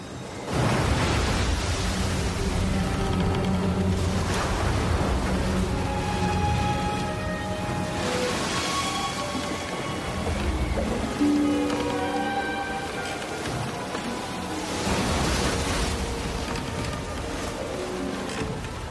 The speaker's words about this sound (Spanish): Y el mar estaba agitado porque soplaba un fuerte viento.